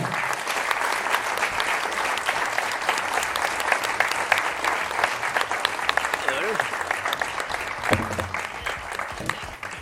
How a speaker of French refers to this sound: Je pense qu'on va remercier et applaudir nos, intervenants.